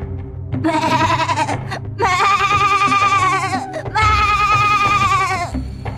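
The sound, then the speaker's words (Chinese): A young lamb, Xiao Heidian, bleats loudly and sadly three times in a row, each cry long and wavering with a high, quivering pitch, separated by brief pauses, over a low background rumble. “小黑点伤心的咩咩大叫。”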